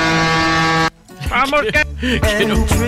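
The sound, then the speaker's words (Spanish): A single loud, steady horn blast with a rich, buzzy tone lasts just under a second and cuts off abruptly, followed by people talking excitedly. “que quiero saber cómo voy a hacer para conseguir un, pitazo como este.”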